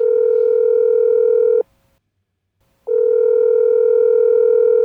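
A mobile phone ringback tone heard while a call connects: two long, steady buzzing tones separated by a short silence, loud, with no voices.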